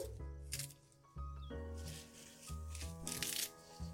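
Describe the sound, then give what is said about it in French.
Crisp crunching as a knife cuts the end off a head of green lettuce while preparing a salad, a few short crackly bursts over a steady musical background, with no talking. “Donc je coupe le bout.”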